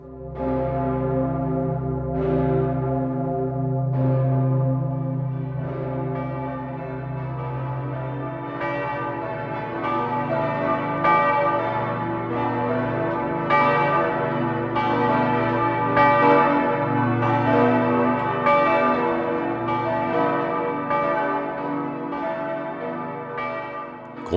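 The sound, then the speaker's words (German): The Pummerin, a large cathedral bell recast in 1951, tolls steadily, each deep stroke arriving every second or two over a rich, humming resonance that never dies away. Loud, with no voices. “Beim Neuguss 1951, die Pummerin ging in den letzten Kriegstagen zugrunde, hielt man sich kürzer.”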